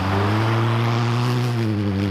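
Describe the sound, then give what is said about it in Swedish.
An untuned Ford Fiesta R2 rally car engine drones loudly and steadily at a constant pitch on a snow and ice surface, with a strong low humming tone layered over a broad rushing noise. No voices are heard. “Som du hör är det en Ford Fiesta R2.”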